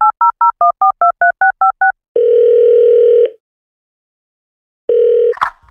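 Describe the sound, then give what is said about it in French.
A rapid run of about ten touch-tone beeps as a phone number with area code 506 is dialed at 4 p.m. to reach Edmundston, New Brunswick, then a long steady ringing tone, a pause of silence, a second burst of the tone, and a click as it cuts off. “Je lui téléphone.”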